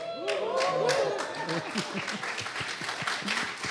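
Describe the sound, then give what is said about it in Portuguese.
An audience breaks into brief applause for a man from Academia da Fé who has just introduced himself, a dense patter of many hands clapping, with voices talking and murmuring underneath as the clapping continues for a few seconds. “só você ganhou palmas, viu?”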